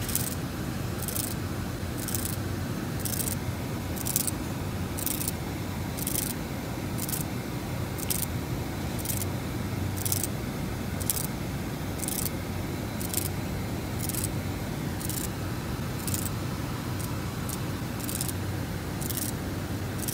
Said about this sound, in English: Um, what you're about to see is uh, live Braille coming out of a Python REPL. So here, here it is, and then I, I zoomed in so you can see the individual um, piezo's pop up the, the, the, the braille word. So here you go.